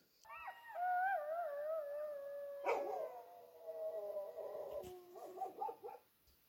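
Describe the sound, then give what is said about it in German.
Jackals howling in long, wavering, gradually falling wails, with a short noisy burst midway and a flurry of quavering yips near the end; clear, with no talking. “Wenn die Schakale anfangen zu heulen, mhm.”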